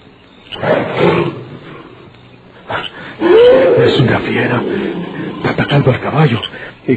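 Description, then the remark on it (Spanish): A wild beast roars loudly in rough, growling bursts, with a rising and falling howl-like cry midway and heavy snarling surges toward the end. “¿Dispararon sobre la fiera? Ya no se oye”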